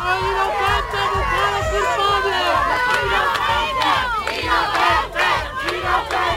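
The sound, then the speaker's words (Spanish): A crowd of many voices, relatives of a man detained in Barbate, Spain, shouting and yelling his innocence together as he leaves the courts to be taken to prison, loud and continuous, with overlapping raised cries rising and falling throughout the whole stretch. “Eso gritaban a la salida eh, cuando era para trasladarlo a la prisión.”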